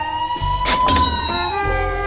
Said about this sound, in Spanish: Sirenas, revuelo, policía.